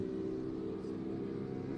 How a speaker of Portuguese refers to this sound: uma motocicleta passou no sinal vermelho aqui do nosso lado. Duas. Duas motocicletas, pois é.